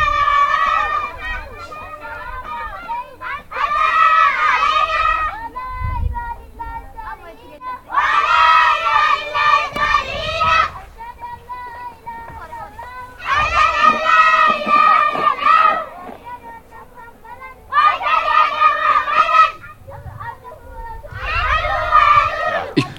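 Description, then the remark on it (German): A small group of children recite a verse or prayer together in unison during a frontal classroom lesson, loud rhythmic phrases repeating in five bursts with brief pauses between, energetic like a drilled chant. “es gibt eine kleine Gruppe von Kindern, die äh, quasi eine Strophe oder ein, eine, ein Gebet anfangen”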